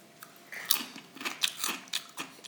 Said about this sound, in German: Machen Sie mal Chip-Geräusche.